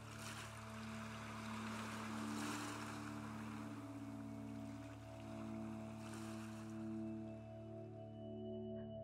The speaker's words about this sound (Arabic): اسمع صوت الموج وخليه يهدي أفكارك وجسمك وأعصابك وسيب صوت الموج ياخدك لبعيد